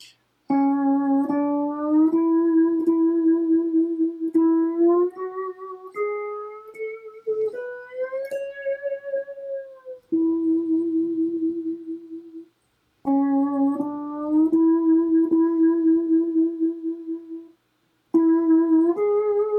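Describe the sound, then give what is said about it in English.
A solo instrumental melody in the key of A, played in C13 tuning, of sustained, ringing notes that glide smoothly between pitches, played loud in phrases broken by short pauses, with no voices. “And the melody sounds like this.”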